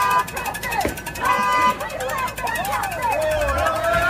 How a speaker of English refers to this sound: So here they are in the middle of the street, car honking, they won't move.